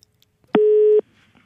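A single steady telephone ringing tone as the radio station Radio Revolt calls a musician sounds once for about half a second, clear and fairly loud, with near silence before and after and no voices.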